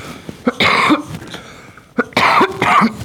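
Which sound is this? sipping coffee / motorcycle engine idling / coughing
coughing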